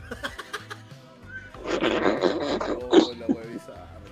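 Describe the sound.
A person voices a rough, drawn-out growl in imitation of a bear, rising loud for a couple of seconds over low background music, with bits of laughter around it.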